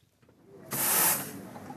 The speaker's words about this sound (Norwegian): Bortsett fra dampen fra kaffemaskinen på kinokafeen, er det lite som tyder på at dette er kinodagens søndag.